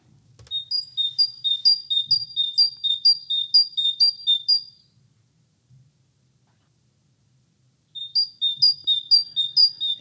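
A great tit sings its bright two-note song, repeating the see-saw phrase in a quick steady rhythm, pausing for about three seconds, then starting again, clear with no voices.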